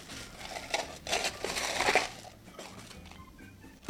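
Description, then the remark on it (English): Ice cubes clatter and rattle into a glass over a squeezed half lime, covering it while a gin drink is made, in a loose series of bright, crunchy bursts, moderately loud, settling down before one last sharp knock at the end. “you're gonna squeeze the juice of the half of lime, and then take the half of lime and put it into the bottom of your glass, cover it with ice.”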